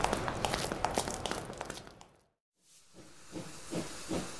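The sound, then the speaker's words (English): Loud steam hissing from a train boarding for Woldhurst for about two seconds, then a brief silence before a softer hiss returns with faint clanks and thumps, like a locomotive idling at a platform. “Excuse me, but they're boarding the train now.”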